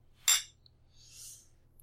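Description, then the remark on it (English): Glasses of homebrewed hoppy wheat beer clink together once in a toast, a bright, sharp chime that fades quickly, followed by a softer, brief high shimmer over a low background hum. No one speaks. “Let's cheers to that, cheers.”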